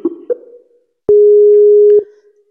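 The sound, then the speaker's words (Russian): A telephone busy tone after a dropped call plays loud: two short low beeps, then one sustained steady tone lasting about a second before cutting off. No one speaks. “Ох, что же у нас с тобой со связью-то сегодня?”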